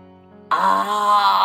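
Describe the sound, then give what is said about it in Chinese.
A voice imitates a Tyrannosaurus roar in a children's dinosaur story: after a brief low hum, a loud, sustained growling cry bursts in and holds steady, rough and harmonically rich, for about a second. “霸王龙大吼一声”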